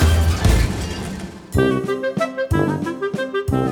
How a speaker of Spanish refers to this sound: mientras la señora Nation destrozaba con un hacha todo aquello que encontraba pecaminoso, toda botella, vaso y barril de alcohol que se cruzara.